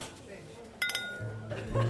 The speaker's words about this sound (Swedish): Klingande glas och skratt avslöjar en härlig stämning